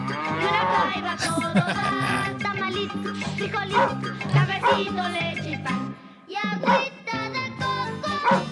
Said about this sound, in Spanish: Ahí, sí pone todos los animales del rancho.